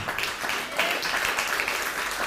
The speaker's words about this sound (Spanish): A todo nuestro país del ancho y largo. Hasta allá que vaya el aplauso. Vamos México, levántate. Centroamérica, Suramérica, un fuerte aplauso también.